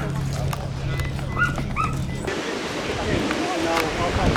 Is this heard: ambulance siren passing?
no